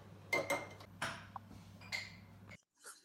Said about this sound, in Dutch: En daarbij eh, maak ik lekker basilicumroom. Gewoon met lekkere volle slagroom. Een drupje doTERRA basilicumolie. Een drupje zwarte peperolie. Een beetje Himalaya zout. En dat is een kwestie van stijf kloppen.